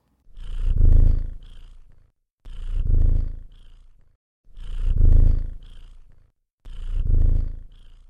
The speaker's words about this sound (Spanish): Otra de sus características es el ronroneo, que emiten generalmente cuando están contentos. Pero también lo pueden hacer si están asustados o sienten dolor.